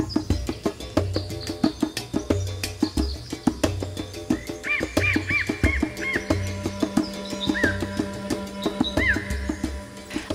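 Birds chirp outdoors in short repeated bursts, set against a busy, steady chorus of clicking, croaking night-like creatures; no one speaks.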